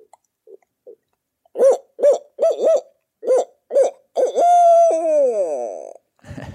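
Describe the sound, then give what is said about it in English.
A voice imitates a deep, big owl, giving a run of short, rhythmic hoots that ends in a long wavering hoot sliding downward, loud, with no talking. “And, uh, but I'll do this one like a deeper, more bigger owl.”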